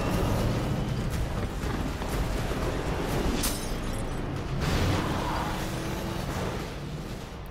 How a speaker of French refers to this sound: bruit d'explosion.